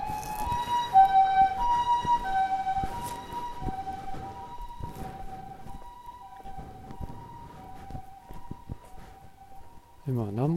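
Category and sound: vehicle, ambulance siren passing outside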